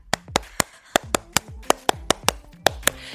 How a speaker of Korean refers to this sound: 제가 온 마음을 다해 박수 쳐드리겠습니다.